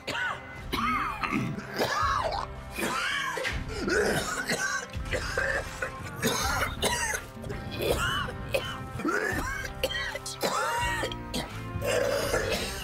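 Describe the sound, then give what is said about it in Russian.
Heavy, repeated coughing in loud, rough bursts from Walter White, a chemistry teacher with cancer, interspersed with throat clearing and strained, groaning breaths, continuing throughout. “Он болен раком, из-за которого кашляешь. Очень много.”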